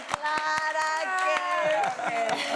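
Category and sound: crowd, audience clapping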